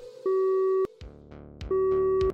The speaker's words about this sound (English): He picked up the phone and called a friend from the past.